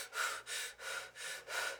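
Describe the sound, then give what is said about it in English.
Rapid, deep breathing in and out during a lung test, about five airy breaths in quick, even rhythm, with no talking. “the breathing in and out deep and fast”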